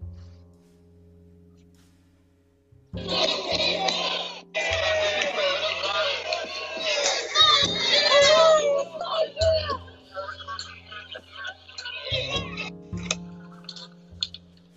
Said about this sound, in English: Okay, so in the beginning, when you heard that yelling, there was the riot squad standing shoulder to shoulder in a wall of people